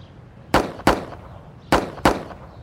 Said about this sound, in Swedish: Då klev Mark Fellows fram rakt emot Markinsella och öppnade eld.